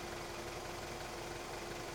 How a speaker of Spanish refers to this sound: El carro se pone en marcha y el otro tope que nos sacude nos dice que estamos saliendo del ferry.